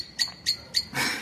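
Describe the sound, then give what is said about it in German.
A common blackbird gives three short, sharp calls in an even rhythm, moderately loud, followed by a brief hissy rush of noise. No one speaks. “ich habe den Eindruck, die Amsel will da auch mitschnabeln”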